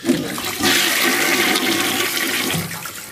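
A toilet flushes, a loud rushing surge of water that swirls and gurgles steadily for a few seconds, heard on its own without any talking.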